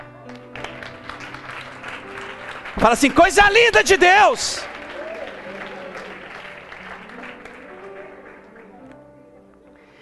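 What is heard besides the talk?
audience applauding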